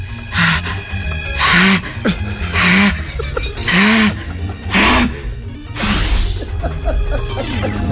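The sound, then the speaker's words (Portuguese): A voice imitates a child at a buffet sneezing onto the pork: about six breathy, explosive bursts in a row, each with a short voiced lead-in, loud with no other sounds. “O miúdo espirrou para cima do jantar de dezenas e dezenas de pessoas.”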